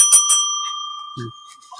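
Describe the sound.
A small bell labelled "Ring for Sex" is struck twice in quick succession, bright, its clear metallic tone ringing on and slowly fading, with a brief low voice murmuring partway through.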